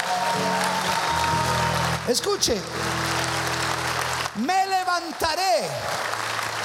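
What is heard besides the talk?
audience applauding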